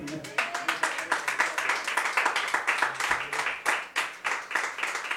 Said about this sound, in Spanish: Amén. una ofrenda de palmas al Señor.